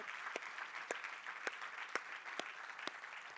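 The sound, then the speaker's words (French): A church audience applauds the church team steadily, a dense wash of clapping with a few sharper, louder claps standing out at regular intervals, and no one speaking over it. “Et toute l'équipe, est-ce qu'on peut donner une main d'acclamation?”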